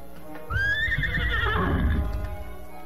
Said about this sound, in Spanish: los cuatro yanques que estaban en la puerta oyeron llegar el caballo.